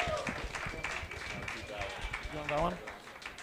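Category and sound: crowd, audience applause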